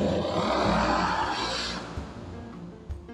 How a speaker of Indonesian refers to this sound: sorry guys iklan ada suara motor oke aku lanjut